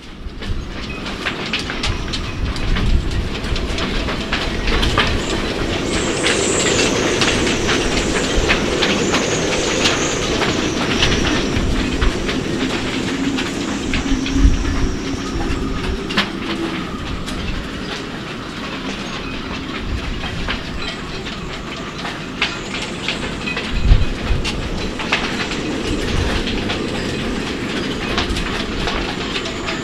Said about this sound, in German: heutigen Podcast geht es um das Thema, was tue ich, wenn wirklich viel Wind kommt, wie vielleicht der etwas windige Beginn schon suggeriert hat.